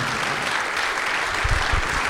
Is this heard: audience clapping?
yes